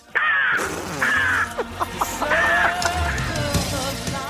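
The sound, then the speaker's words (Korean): A woman in her early thirties imitates a crow, giving about three harsh, drawn-out cawing calls, separated by short pauses with some fainter clicking vocal sounds in between. “30대 초반의 여성분이 까마귀 소리 들어보겠습니다.”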